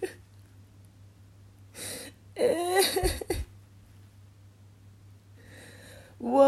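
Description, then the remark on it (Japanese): A 24-year-old woman cries: a quick sniffle, then a wavering, breathy sob lasting about a second, and after a quiet pause another shaky intake of breath. “おめでとうございますなんてめでたいのなんかもうここに来て24歳たかだか24だということを免罪符に使わせていただきたいんだけどめちゃめちゃ泣いてる”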